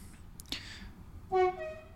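A train passes, its horn giving one short, steady blast over a low background rumble, preceded by a faint click.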